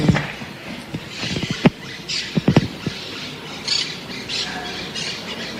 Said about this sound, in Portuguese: As caturras estão a mil. Porque afinal de contas eu tenho que dar bom dia para elas também, né? E elas ah. sempre nos recebem bem, né? Aquele... Estão alegres hoje as caturritas, né? Felizes.